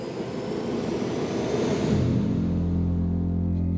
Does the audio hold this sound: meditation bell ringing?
no